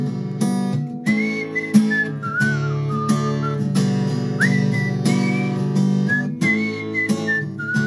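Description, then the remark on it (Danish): A high, clear whistled melody glides and slides above a full band, with sustained tones bending up and down over steady chords and rhythmic accompaniment, loud. “jeg så ikke fløjt deroppe, mand. Hvordan gør han det?”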